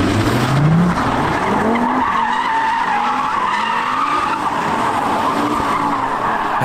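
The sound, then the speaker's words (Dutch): A loud car revs hard and drives fast on a German autobahn, its engine roaring and rising in pitch with tires squealing, with no talking. “Toen zei hij, zo, dat hoor je echt nog goed, jouw auto.”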